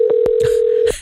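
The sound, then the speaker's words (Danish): A steady telephone tone hums continuously for about a second, punctuated by a few brief clicks and bursts, as a call connects to a film character's answering machine; no one speaks. “Det er jo så heldigt for os uh, her i radioen, at mange af dine karakterer, de præsenterer jo faktisk sig selv i begyndelsen af filmen i sådan en billedløs montage, uh, hvor vi lytter til Katrines telefonsvarer. Det lyder sådan her.”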